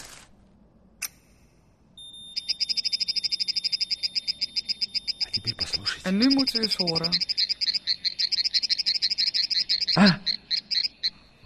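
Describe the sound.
A steady, rapid series of high croaking tones pulses on and on, frog-like and fairly loud: the stress signal of a second plant answering a first plant whose leaf was cut. A man's voice briefly speaks over the middle and near the end.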